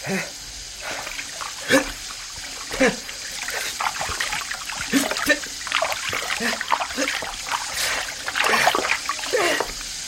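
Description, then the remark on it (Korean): Water runs steadily from a sink tap that gives no hot water, with a constant hiss, broken by irregular splashes and spatters as it hits something below. Faint voices murmur in the background. “이건 물 뜨거운 물 안 나와요.”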